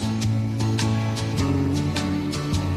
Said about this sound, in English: Just gonna let it ride for a second honor of Matt LaFleur and Joe Barry? Sometimes it's hard. This would be a little be old school country, obviously.